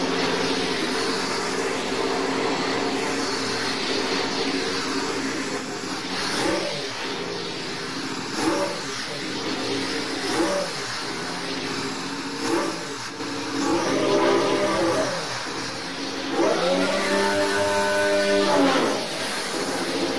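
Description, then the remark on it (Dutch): The AT02's powerful engine revs repeatedly, its pitch climbing and falling in loud bursts over a steady idling rumble, with a final long rising rev near the end; recorded in 8D audio. “En geniet even mee van de AT02.”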